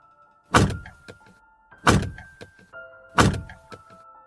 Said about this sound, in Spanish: Se escucharon tres estruendos disfrazados de golpes en la puerta.